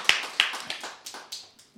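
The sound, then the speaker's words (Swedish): A brief, thin round of applause welcoming a guest to a radio programme: roughly seven or eight sharp, bright hand claps at an uneven, slightly slowing pace, each one ringing briefly before the next. No voices. “Stor applåd!”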